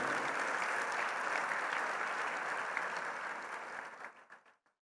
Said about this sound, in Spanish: Un trabajo, un, un aplauso por el trabajo, hermanos.